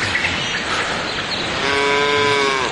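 A single drawn-out cow moo rises partway through over a steady noisy background, fairly loud, holding its low droning tone to the end with no voices present.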